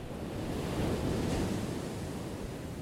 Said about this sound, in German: Mal ist das Meer aufgewühlt, Gischt sprüht von spitzen Wellenkämmen